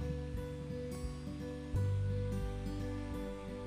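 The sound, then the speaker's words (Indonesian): A steady, close whooshing of an electric fan blowing right into the microphone, with a low motor hum underneath and buffeting that gets louder partway through; nobody speaks. “mohon maaf suara kipas oh suara kipas baik karena lo tau nggak kenapa kipas ini deket banget sama gue”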